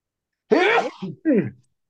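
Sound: sneeze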